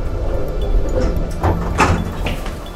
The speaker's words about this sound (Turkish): Kapıyı çaldık, kendiliğinden açıldı.